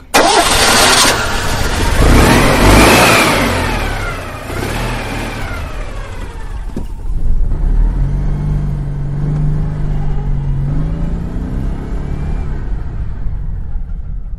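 A small Citroën 2CV engine starts with a burst, revs up loudly in rising and falling sweeps, then settles into a steady driving drone with shifting pitch, close by and continuous.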